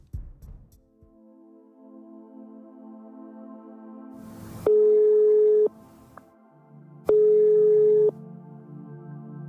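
A telephone ringback tone on a call to Switzerland sounds twice, each steady electronic burst lasting about a second with a pause between, over a low sustained droning background.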